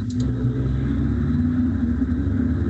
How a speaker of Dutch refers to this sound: Ja, sorry, dat is, dat is waarschijnlijk bij mij. Het zijn hier brommers voorbij aan het rijden. Ja, ik heb een heel slecht geïsoleerde ruiten